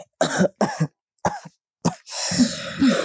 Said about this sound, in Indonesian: ih, ih, kamu udah sampai batuk-batuk gitu deh, ih. Tante takut deh,